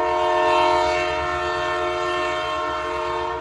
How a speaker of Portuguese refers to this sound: Ele ia capotar, descarregar o trem na primeira curva, que era um trem de carga, um trem pesado, e aquele sono ia durar ali.